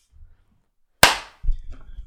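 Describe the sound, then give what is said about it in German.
One sharp, loud hand clap, made anew to restart a recording, cracks out and rings off briefly, with faint low murmuring before it and a soft rumble of voices or movement afterward. “Sollen wir nochmal neu klatschen?”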